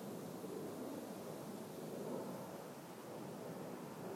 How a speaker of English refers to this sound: I really like the sound of leaves. That's it. I really like the sound of leaves rustling in the wind.